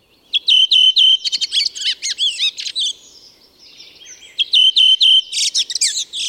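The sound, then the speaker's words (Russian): A redwing sings two loud phrases, each opening with a rapid, stuttering, neigh-like trill of high notes, joined by a softer twittering warble. No one speaks. “вообще не похоже на всех остальных дроздов, но при этом звучит как флейта, вероятно, это голос белобровик.”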